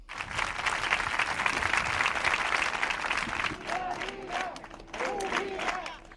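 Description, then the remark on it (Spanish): Healthcare workers clap steadily and densely for several seconds to thank Leganés, a sustained burst of applause that thins slightly toward the end as a few voices call out over it. “Con este aplauso los sanitarios se lo han agradecido a Leganés, mientras reclaman que se tomen medidas para que no vuelva a suceder.”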